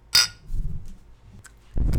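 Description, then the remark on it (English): A single bright clink of beer drinks tapped together in a toast, sharp with a brief ringing tail, followed by low muffled rustling and thuds. “Look, cheers, dude. Cheers. To big boys going potty.”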